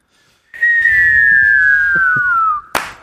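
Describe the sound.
A mouth whistle imitates a firework as a voice warm-up: one long, loud tone sliding slowly downward for about two seconds, then cut off by a short, sharp burst like the bang.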